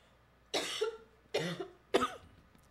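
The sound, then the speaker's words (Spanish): Three sharp, harsh coughs in quick succession, each a short rough burst about a second apart, fairly loud, with no talking around them, from a person who has just sipped strong ginger tea. “A la gran, porque me hacen tan fuerte el, mi té de, jengibre, qué barbaridad.”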